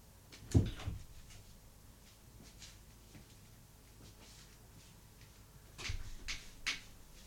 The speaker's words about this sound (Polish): otworzył i zamknę drzwi. No teraz jak drzwi są otwarte, to jest pogłos większy.